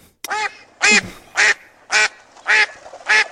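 A duck quacks six times in a steady, evenly spaced rhythm, each quack loud and nasal, with brief silences between and no talking.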